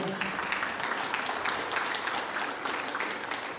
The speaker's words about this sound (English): by the way, I'll probably offend you all this morning, so you know you'll all clap at different times. That's okay.